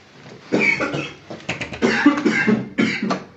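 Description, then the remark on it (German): A fairly loud fit of coughing: several harsh, rasping coughs come in quick irregular bursts, with no talking around them. “Ja, mit dem Husten will ich jetzt auch eine Kippe, du.”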